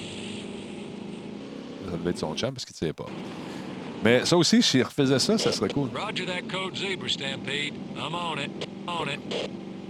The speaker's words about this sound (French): Ça, c'était mon char avec des bruits de moteur, variation sur un même thème.